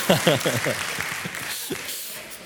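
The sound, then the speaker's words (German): An audience at the Arche claps and cheers to the Lord, several excited voices whooping over a steady wash of applause that eases off slightly toward the end, at moderate volume. “Wir wollen doch dem Herrn zujubeln.”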